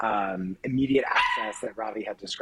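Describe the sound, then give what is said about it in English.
A puppy yaps a few times in the background, sharp and fairly faint, while a man keeps talking over it. “I apologize for the puppy barking in the background.”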